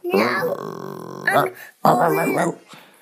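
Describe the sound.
A person growls like a wolf, a low rumbling snarl held for over a second, then two shorter gravelly growls follow, fairly loud with no other sounds.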